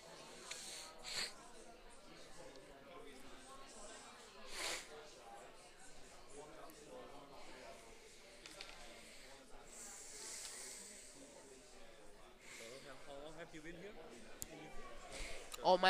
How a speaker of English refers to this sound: So please pardon the sniffing and, and snuckling on this audio podcast. I've got a cold recovering from it, so please pardon my sniffing.